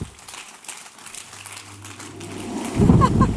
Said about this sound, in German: Unser neues Jahresmotto heisst Expecting the Wind. Genau, mega cool. Ja, mal einen Applaus, genau für das.